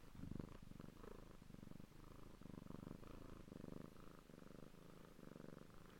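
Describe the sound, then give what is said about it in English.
A pet cat named Barley purrs in a steady, rumbling rhythm of repeated breaths, continuous for several seconds with no talking over it. “So um, I hope you heard his in just then.”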